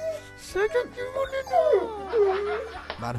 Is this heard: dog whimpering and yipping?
yes